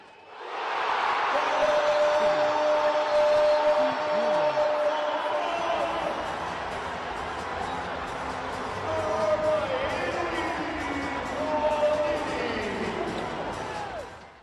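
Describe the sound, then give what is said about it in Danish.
A large arena crowd roars loudly and steadily, a dense wash of cheering and shouting that swells and holds for several seconds, with horn-like tones and court sounds mixed in, as Elohim Prangdi scores a handball goal past six Swedish defenders on a free throw after time at an EHF match on Friday evening in Copenhagen. “Det her var lyden af Elohim Prangdi, der kastede sig rundt om seks svenske forsvarsspillere og hamrede bolden overlægger ind bag Palika på frikast efter tid.”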